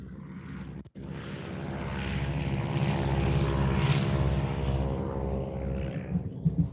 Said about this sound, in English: you know what's going on right now is I'm watching this Ford Trimotor. If you want to listen to this little thing take off, it's actually not that little. Here we go.